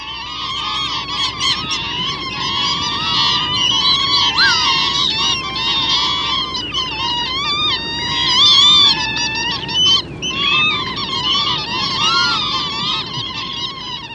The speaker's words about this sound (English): There's another sound that lapwings make, which you hear in the winter when there's large flocks of them together out in the fields. So let's hear that.